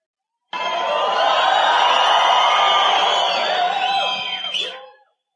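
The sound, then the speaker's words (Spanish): A large audience at a talk, asked to shout louder, shouts and cheers loudly in a sustained roar of many overlapping voices, lasting several seconds before fading out abruptly. “¿Podían gritar más fuerte?”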